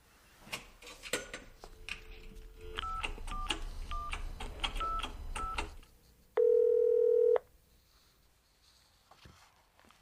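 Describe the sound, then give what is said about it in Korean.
A phone's dial tone hums briefly, then about half a dozen quick keypad beeps are pressed in an uneven rhythm, followed by a louder, sustained electronic tone, with faint background clatter throughout. “전화 좀 하고 올게.”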